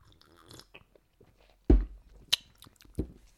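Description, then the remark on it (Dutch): Someone takes sips from a glass of cola with a little vodka, with a few wet, sharp mouth and swallow sounds spaced apart against near silence. “We hebben hier voor ons een, glaasje cola met een beetje vodka voor de oudere luisteraars thuis.”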